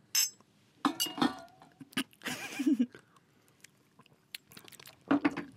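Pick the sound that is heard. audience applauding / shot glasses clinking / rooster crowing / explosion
shot glasses clinking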